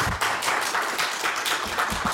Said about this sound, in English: Who here are already listening to this podcast? With a sound of applause.